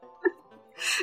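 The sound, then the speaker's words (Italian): Someone vocally imitates a cat and a buzzing bumblebee mixed together, simulating its clumsy flight: a brief whiny voiced squeak, then a breathy, hissing buzz lasting a moment, fairly quiet. “Eh, È il verso del gatto o del calabrone quello?”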